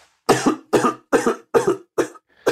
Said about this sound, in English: Oh, there's coughing.